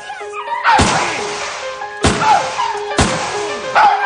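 gunshots

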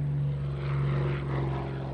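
airplane flying

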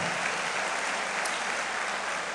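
audience applauding

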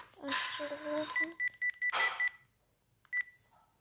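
telephone keypad dialing tones

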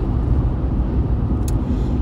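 car interior

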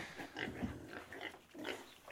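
pigs grunting and oinking

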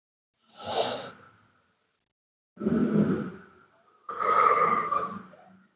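slow deep breath

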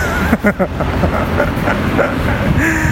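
car traffic

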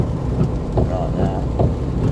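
rain with thunder

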